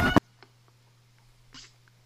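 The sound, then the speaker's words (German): A faint, brief cat meow sounds in the background after a sharp knock at the start, over a steady low electrical hum, with no one talking. “Ich habe eine Katze gehört.”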